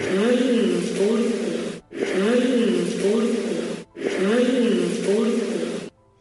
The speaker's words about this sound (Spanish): En otra psicofonía del mismo reportaje se puede escuchar como una voz espectral dice en catalán: "Nois a la porta". Eh, chicos, en la puerta.